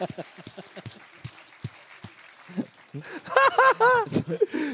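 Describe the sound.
Scattered, irregular handclaps from a small audience at a live event, then loud whooping and cheering voices join in over the last couple of seconds.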